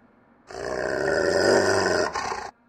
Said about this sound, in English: All three dogs let out a warning growl. They could sense something out in the darkness.